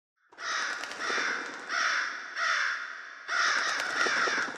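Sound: crows cawing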